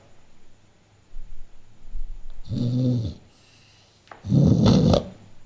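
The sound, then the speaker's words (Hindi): A man addressed as sahib, fallen asleep while being told a story, gives two loud, rough snoring breaths, each about a second long, a harsh rasping inhale followed later by a heavier, noisier one, with no talking. “साहब आप खुराटे ले रहे”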